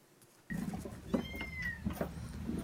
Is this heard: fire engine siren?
no